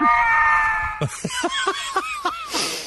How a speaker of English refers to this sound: and that angry elk is the perfect segue into the next file lab- labeled angry elk.